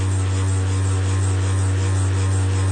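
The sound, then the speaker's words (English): A Motor Bunny motorized sex toy runs with a loud, steady, low mechanical drone and buzzing overtones, unbroken for the whole stretch, much like a small engine idling or a lawnmower. “My God, it sounds like a lawnmower.”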